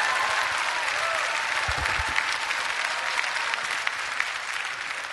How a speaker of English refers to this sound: Come on, somebody ought to give him a clap offering.